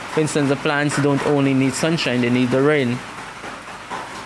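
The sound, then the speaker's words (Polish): Steady rain patters in the background as someone talks over it for a few seconds, then the soft, even hiss of falling rain carries on by itself. “Today unfortunately we won't see sunset, but No, but the rain is the rain is it's nie zawsze może świecić słońce.”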